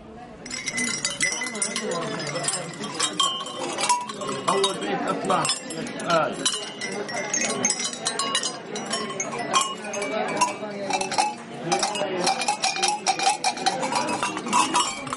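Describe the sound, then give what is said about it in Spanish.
Busy market ambience in the old part of Jerusalem, full of constant metallic clinking bells, overlapping and irregular like a flock's cowbells, with a murmur of crowd voices underneath throughout. “Esto podría parecer un rebaño, pero no, estamos en un mercado...”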